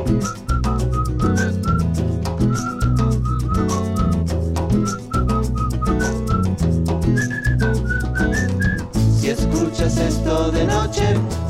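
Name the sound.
person whistling a melody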